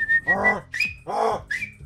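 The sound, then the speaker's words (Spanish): A series of sharp whistles in quick succession, bright, with rising and falling pitch, as someone whistles to call a dog, with no talking. “¿Un silbido? ¿Un pájaro? Pues está llamando al perro. Así llama el perro, ¿no?”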